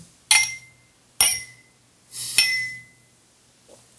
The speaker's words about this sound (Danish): Uh, jo, lad os lige, øh, lad os lige ja, skåle på den ja, her. Ja. Skål, skål. skål.